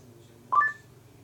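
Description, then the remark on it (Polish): A short electronic chime from a portable speaker switching from Lightning to Bluetooth mode and becoming discoverable: two quick tonal notes, the second slightly higher, rising clearly over a low steady hum and then fading. “teraz jeszcze pokażę, jaki wydaje dźwięk, jak na przykład przełączam go z Lightning na Bluetooth i urządzenie jest wykrywalne, jakiś na przykład właśnie iPhone.”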